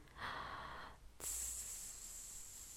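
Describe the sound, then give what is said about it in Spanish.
A short breath drawn in, then a steady, sustained hissing 's' pushed out slowly and evenly as a breathing exercise, clear, with no talking. “Tomar aire e irlo sacando poco a poco con una S”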